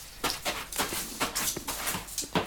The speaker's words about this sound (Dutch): Hey, hondje. Ze was heel enthousiast, dus...